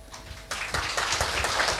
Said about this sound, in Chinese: 从大家的掌声可以看出，我们今天还不止一位，呃，这个是呃不常见的科学家